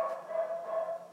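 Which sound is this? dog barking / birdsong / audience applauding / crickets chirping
dog barking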